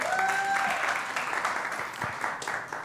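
Loud, sustained audience applause for a special guest on a Sunday, a dense crackle of many hands clapping at once, with a few whistles and faint cheers rising above it.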